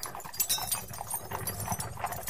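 Steady clip-clop of hooves from a horse-drawn carriage, a brisk repeating rhythm of sharp knocks over a low rumbling undertone, with no voices.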